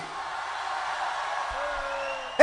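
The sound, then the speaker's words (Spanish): A large crowd at a Christian worship concert shouts and cheers when asked to shout if they believe the Holy Spirit is present, a steady, roaring wash of voices that fills the whole moment, with a sharper burst of sound at the very end. “Que grite el que crea que está el Espíritu Santo aquí.”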